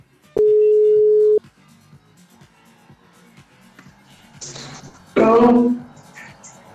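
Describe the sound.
A single steady, mid-pitched telephone ringback tone sounds for about a second as a call is placed to a friend, then quiet line hiss follows before a voice briefly answers on the line.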